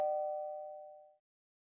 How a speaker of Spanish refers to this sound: Y luego, el miedo corrió por mis venas cuando el timbre sonó por segunda vez.